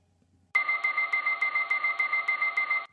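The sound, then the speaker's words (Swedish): A loud electronic warning alarm, given as the signal for horse transport, sounds on its own for over two seconds: a sustained, shrill tone pulsing in a rapid, even rhythm, then cutting off abruptly. “det här är signalen för hästtransport.”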